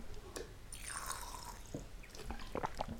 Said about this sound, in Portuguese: Gostaram deste barulho? Tem aquelas garrafas à, à ajuda da bola. então eu mando o jato de água para dentro da boca.